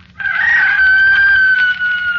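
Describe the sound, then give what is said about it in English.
A single rooster crows at dawn somewhere below a hill, in one long, drawn-out call lasting about two seconds, clear and fairly loud, with a faint low hum underneath and no talking. “And below it somewhere a rooster crowed.”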